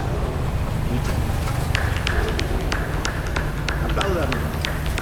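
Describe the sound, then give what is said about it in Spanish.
A president, wearing the presidential sash, clapping for himself alone after asking for applause that no one gives: sharp, sparse claps in an uneven rhythm starting after a short pause, set against a steady, noisy background hum. “y moviendo las manos como director de una orquesta que no sabe dirigir, el bandolero de la banda presidencial pide que lo aplaudan y nadie le responde y se aplaude solo y solo escuchamos sus aplausos.”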